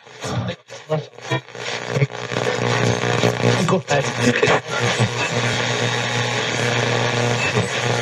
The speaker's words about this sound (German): Sounds like maybe a gunship or artillery, too.